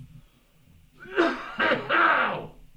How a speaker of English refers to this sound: Okay, hang on. I got a cough.